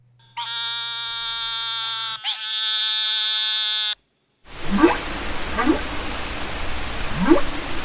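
A long, nasal, bleat-like buzz from an eastern narrowmouth toad with one brief break, then hissing underwater noise carrying three rising whoops from a humpback whale.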